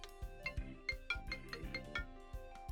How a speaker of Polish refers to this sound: Powtórz jeszcze raz, bo mi telefon zadzwonił